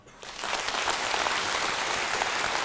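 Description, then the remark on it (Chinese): A crowd bursts into applause that swells within a fraction of a second and then holds as a dense, steady wash of many hands clapping, with no voices over it. “他俩合作二十多年了，我们应该给点掌声。”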